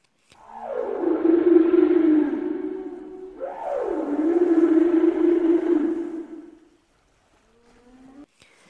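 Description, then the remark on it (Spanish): Two long, low whale moans, each sliding down in pitch and then holding a steady drone for a few seconds, followed by a brief, faint third call. No voices. “Griselda volvió a brillar cuando vio que las ballenas venían hacia ella.”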